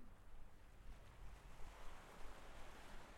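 Steady wash of waves rustling over shingle pebbles at Le Dourven, a continuous hissing, rattling surf with gentle surges, with some low wind rumble and no voices.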